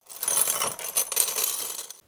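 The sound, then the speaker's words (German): A chain clinks and rattles softly for about two seconds, a continuous bright metallic jingle at low volume that ends abruptly, with no voices. “Und eine Kette klirrte leise mit dazu.”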